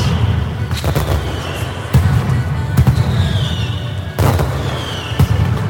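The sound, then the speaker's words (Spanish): A loud, dense barrage of firecrackers from a Valencian fallas mascletà: sharp bangs burst repeatedly over a continuous rumbling roar, with occasional whistling rockets rising above the din, overwhelming, with no voices. “El sonido, el sonido auténtico fallero, ya estás escuchando. Esta mascleta la vamos a dedicar a todos los valencianos y, valencianas.”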